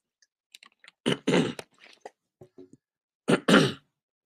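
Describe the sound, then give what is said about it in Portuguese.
Someone with a sore throat sips water with small wet clicks and swallows, broken by two loud, harsh bursts like throat clearing. No one speaks. “Deixa eu beber um golinho d'água aqui, que a garganta tá complicada, rapidinho.”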